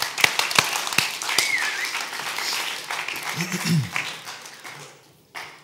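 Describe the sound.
Applause from a crowd, a dense wash of clapping with a few sharper individual claps standing out, lasting several seconds before tapering off abruptly, with a brief voice or murmur in the middle.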